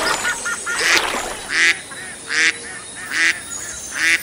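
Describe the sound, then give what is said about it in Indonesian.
A duck quacks loudly and repeatedly, about five harsh, nasal calls spaced at a steady rhythm, with no one talking. “ada bebek”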